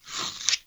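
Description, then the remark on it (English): A cardboard package from Amazon being torn open, a single short burst of crisp, crunchy ripping that swells and then cuts off, with no voices. “Um, that's the noise of me opening it,”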